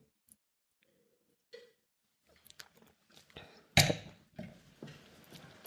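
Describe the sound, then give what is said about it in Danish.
After a toast, someone takes a sip of a drink: soft lip and mouth noises, a brief louder slurp-and-gulp burst, then a few small wet clicks, with no talking. “Skål, nu tager vi, vi tager en slurk med.”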